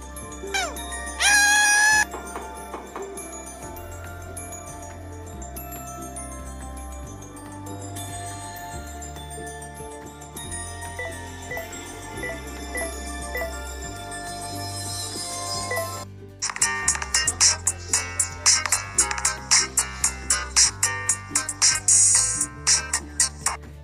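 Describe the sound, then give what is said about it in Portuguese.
A catchy mobile game ad jingle suddenly interrupts a game being played: a bouncy repeating bassline with bright chiming melody and cartoonish effects, turning louder and punchier with rapid rhythmic hits in the final seconds. “Você está de boa, jogando, e de repente o jogo para e você ouve isso aqui interrompendo do nada no seu áudio.”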